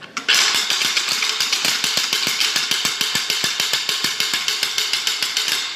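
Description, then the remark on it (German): A night watchman's wooden ratchet rattle (Nachtwächterratsche), once used by night watchmen to raise the alarm, swung steadily, giving a loud, rapid stream of dry clacks at an even rhythm for several seconds, with no talking over it. “Das ist eine Nachtwächterratsche. Damit haben die Nachtwächter Alarm geschlagen, wenn sie etwas Verdächtiges festgestellt haben oder wenn es irgendwo in der Stadt gebrannt hat.”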